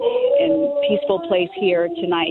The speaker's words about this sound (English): You can maybe hear someone singing behind me, and mm. it's, uh, it's just a very, very lovely mood here right now.